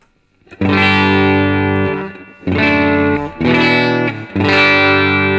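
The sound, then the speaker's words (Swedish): Electric guitar played through a Universal Audio Dream amp-modeling pedal into an audio interface, with slight gritty breakup, tube-like compression and light reverb: several loud, sustained chords ring out in turn, separated by brief pauses, with no voices. “Universal Audio Dream-pedalen som Precis. har blivit vår to-go-to-förstärkarpedal in i ljudkort.”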